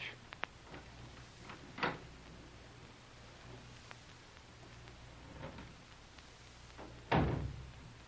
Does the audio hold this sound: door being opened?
yes